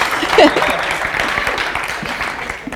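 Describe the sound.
A crowd applauds steadily, many hands clapping in a dense, even patter that holds at a fairly loud level throughout, with a brief murmur of voices near the start; a church audience at Urban Village Church, Edgewater, applauding after a reading of Matthew 15:21-28.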